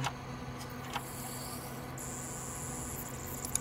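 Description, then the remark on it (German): A CD drive loading a disc: a few soft mechanical clicks over a low steady hum, then a thin high-pitched whine rises partway through as the disc spins up. No voices. “Es lädt, es lädt, es lädt und geht los.”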